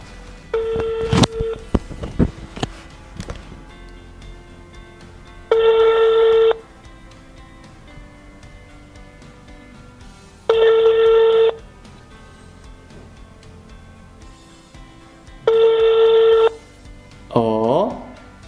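A quick flurry of telephone dialing beeps for a call to Austria, then three steady, mid-pitched ringing tones, each about a second long and spaced roughly five seconds apart, followed by a brief warbling sound at the end.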